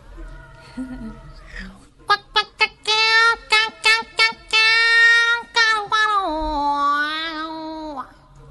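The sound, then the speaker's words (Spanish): A female contralto singer's voice imitates a Telecaster electric guitar: a quick run of sharp, punchy staccato notes, then longer sustained, bending tones with a wavering vibrato. The voice is loud, with no talking. “Entonces me di cuenta que explorando otros timbres puedo llegar a hacer algo parecido a una guitarra eléctrica y cómo suena esa guitarra eléctrica.”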